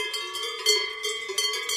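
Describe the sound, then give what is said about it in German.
A very large cowbell worn by a cow that comes running clanks repeatedly in an uneven rhythm, as if swinging with the cow's steps, its metallic tone ringing with overtones between strikes. No voices are heard. “Da kommt eine der Glockenträgerinnen angelaufen. Sie trägt eine sehr große Glocke.”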